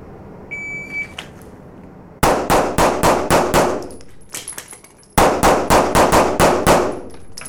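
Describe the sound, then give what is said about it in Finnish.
A short electronic start beep, then a shooter turns and fires two fast strings of loud pistol shots, about six or seven each, separated by a brief pause, with metallic pings from struck steel targets ringing after. “Sitten tulee stand by, viive ja sitten mä käännyn ja ammun.”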